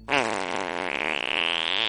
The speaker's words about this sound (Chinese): 皮羞羞放了一个又响又臭的屁。